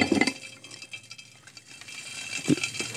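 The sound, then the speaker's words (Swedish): Small hard items are poured into a glass jar, rattling and clinking, with a burst at the start and another near the end, plus light tinkling in between, moderately loud. “Så häller vi på här bara.”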